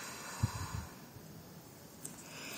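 A slow, deep exhalation during a guided breathing exercise, released after holding the breath, a soft steady rush of breath that starts with a brief puff and fades into a long, quiet hiss, with no talking.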